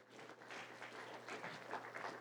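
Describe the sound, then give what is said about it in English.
A crowd claps their hands together in praise of Jesus, a dense, steady burst of applause that carries on evenly for a couple of seconds, with no one speaking. “Jesus, come on, give him a hand clap of praise today.”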